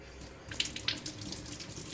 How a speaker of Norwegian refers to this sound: Så skal vi bare kaste litt vann i, eh, I bunnen i bunnen av ovnen. Okay. For at det skal skapes damp, da. Så bare litt kaldt vann? Ja.